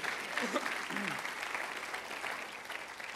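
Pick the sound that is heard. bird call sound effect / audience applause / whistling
audience applause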